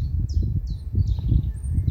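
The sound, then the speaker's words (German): Several short, high bird chirps repeat every half second or so over a steady low outdoor rumble, with thin whistled notes. “wenn du durch den Wald läufst und das Vogelzwitschern hörst im Außen, beginnt eine Stimme im Inneren mit dir zu sprechen und sagt, jetzt bist du so alt geworden und kannst noch nicht einmal die Vögel auseinanderhalten, die dir ihr Lied zwitschern.”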